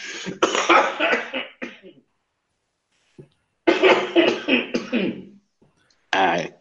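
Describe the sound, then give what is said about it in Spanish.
A person fakes a fit of coughing, loud: a run of harsh, raspy coughs, a short pause, another drawn-out burst, then one final cough. “espero que les haya gustado mi imitación fiel de una persona tosiendo.”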